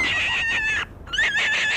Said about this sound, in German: Kaninchen können laut schreien, wenn sie Todesangst oder Schmerzen haben.